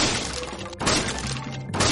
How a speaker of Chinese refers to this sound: 大灰狼举起像铁锤一样的双手，重重的砸着木头房